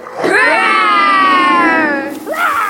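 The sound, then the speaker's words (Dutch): A group of children lets out a long, loud roar in imitation of a lion or tiger, held for about two seconds before another shout begins. “Raar! ja, nog een keer. En nu nog harder, als een leeuw of een tijger.”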